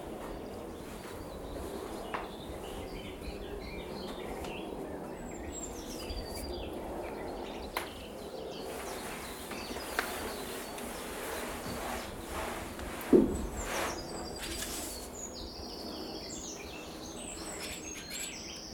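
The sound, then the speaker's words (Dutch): Outdoors at shallow ponds, many birds chirp and call, short overlapping tweets scattered over a steady soft background hiss, with a brief louder rustle or knock midway. No one speaks. “Het leuke aan deze plassen is, is dat er altijd wel iets te zien is aan eenden, vogels.”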